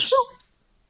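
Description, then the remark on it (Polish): A single short, sharp sneeze bursts out, a breathy hiss with a voiced edge, followed by a faint click and then silence. “Oj oj, na zdrowie.”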